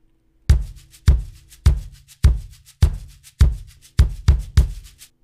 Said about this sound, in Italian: Ad esempio, un tema ricorrente di questa canzone è l'onomatopea del cuore che batte, no? Boom, boom, boom. E per tutta la canzone noi sentiamo il suono di una gran cassa in sottofondo che continua a pulsare ininterrotta, che fa così.